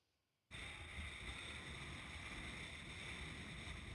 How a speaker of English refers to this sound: It's very Windy on a high hill.